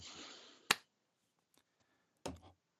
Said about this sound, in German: ich werfe die Münze auf meine unnachahmliche Art. Zahl.